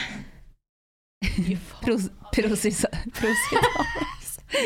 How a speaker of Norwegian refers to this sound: Hvis dere ikke hørte det, var en sinnssyk nys